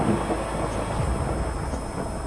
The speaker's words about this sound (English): And about that time, there was some thunder going on outside.